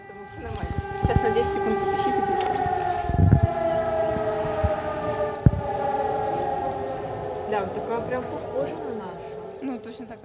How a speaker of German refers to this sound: Scheinbar nur ein Probealarm in der Nähe.